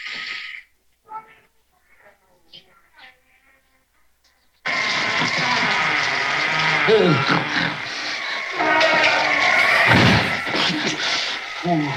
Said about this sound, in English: Well, what was that? Why, that was. Why, that was the creaky door.